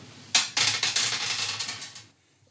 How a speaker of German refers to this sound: Ja, okay. Nur damit du nochmal würfeln kannst.